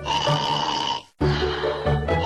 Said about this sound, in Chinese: 老鼠又来到狐狸身边，狐狸还没有醒，呼噜呀正打得一声比一声响。